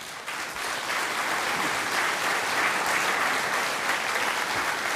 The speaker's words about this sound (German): man, man ich muss jetzt sagen, dass das Publikum hier klatscht